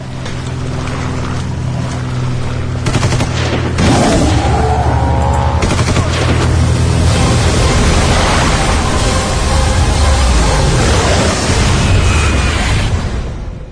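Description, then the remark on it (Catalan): A radio show's theme tune plays on its own for about fourteen seconds: a loud, dense, rumbling wash of noise with sharp bursts, gliding tones and sustained low drones, with nobody talking. “si et sembla, sentim un moment la, la sintonia, eh?”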